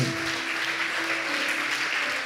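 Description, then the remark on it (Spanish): A crowd applauds the Lord steadily during a church service, a dense wash of many hands clapping at once, loud and sustained throughout with no voices standing out. “Junte sus palmas. Dele fuerte el aplauso al Señor.”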